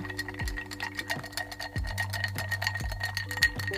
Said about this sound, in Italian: Adesso aggiungiamo il ghiaccio e iniziamo a mescolare, sempre con un bar spoon.